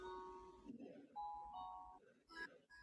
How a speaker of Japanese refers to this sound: おりゃーなんか、音楽が聞こえてるね。あ、これは私、うちの時計の音なんですけど、9時になりましたっていうあれなんだけど、時報なんだけど。